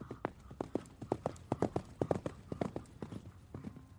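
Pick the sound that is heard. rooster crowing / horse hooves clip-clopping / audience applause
horse hooves clip-clopping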